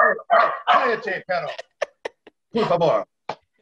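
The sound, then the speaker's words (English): Dogs bark in a quick, irregular series of loud yaps and bursts, with short pauses between them and a final burst after a brief gap. “All the dogs jumping and everything.”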